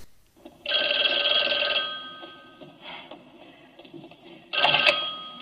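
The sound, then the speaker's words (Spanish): A telephone rings with a bright, buzzy electronic trill, two bursts separated by a pause, loud, with faint background noise between the rings, as a man calls his wife at home in the United States. “Y entonces, eh, cuando está en, justamente a lo mejor al día siguiente va a matar a alguien, pues llama a su casa y se oye este diálogo.”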